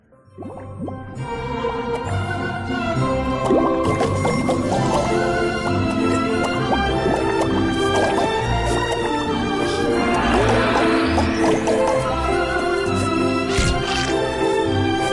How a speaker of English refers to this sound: uh, we should mention sackboy this big adventure for having some uh, interesting music choices here here's an underwater theme uh, for a level and you're just playing through it then you start to realize like that song is so weirdly familiar